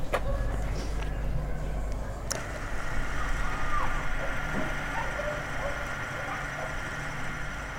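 A steady mechanical whir from an old 16mm analog film camera motor runs continuously at a soccer field in Colonia Lázaro Cárdenas, a quiet neighborhood of Tijuana, with a low hum underneath and faint outdoor ambience around it.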